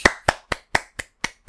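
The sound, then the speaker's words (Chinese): One person claps their hands seven times as homemade applause in place of canned sound effects, at a quick, steady pace, each clap sharp and bright with a short decay. There is no talking. “本节目没有罐头音效，我就自己拍人工掌声啊！”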